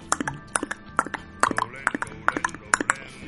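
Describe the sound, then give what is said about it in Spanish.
A person clicks their tongue to imitate a little horse's hooves: about twenty sharp, hollow clicks in a steady trotting clip-clop rhythm, grouped in quick pairs and triplets. They are fairly loud, with no talking. “No, no, no, es, un caballito.”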